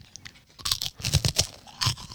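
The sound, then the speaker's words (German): Crunchy snack pieces being chewed while testing whether they suit VR gaming, a quick series of dry, crackling crunches in uneven bursts with short pauses between them, moderately loud and with no talking. “weil ich habe null Befriedigung jetzt durch die drei, vier Stück, die ich jetzt gegessen habe.”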